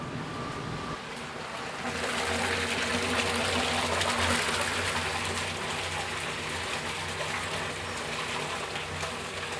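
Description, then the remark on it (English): A loud, steady rush of 100 liters of hot water pouring from a batcher into a large cooking pot for cornmeal begins after a second and continues without pause, with a low mechanical hum underneath. No one speaks. “And what it does, it batches 100 liters of water into the pot, hot water”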